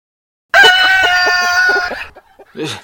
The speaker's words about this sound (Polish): No ta kura chodzi bez głowy. Niesamowite. Chodząca, nie no, żywy trup kury. Żywa, martwa kura.